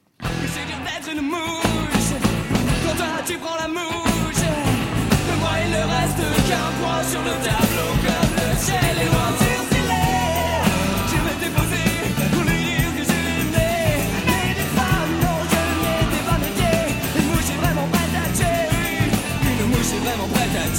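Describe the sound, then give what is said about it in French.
A loud, full-band 1990s rock song by a band of young musicians just out of high school plays with driving drums, dense distorted guitars and a shouting lead vocal, sustained at steady high energy throughout. “Puis très vite, le clavier dans ce groupe rock de jeunes sortis du lycée.”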